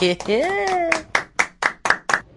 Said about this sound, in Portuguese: Opa, palmas para mim.